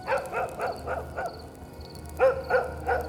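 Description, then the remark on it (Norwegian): A dog barks in a quick run of about five sharp woofs, pauses briefly, then lets out a few more barks, clear with no one talking. “Se for deg en steinalderfamilie som sitter rundt bålet. Jepp, de hadde en fido.”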